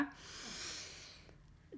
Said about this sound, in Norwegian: Koble over på kroppen, på pusten. Den puster dypt inn med nesa.